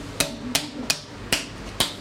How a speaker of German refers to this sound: Also dann müssen wir tatsächlich diese großen Flaschen klopfen, damit sich die Zellen auch gut von der Oberfläche wieder ablösen.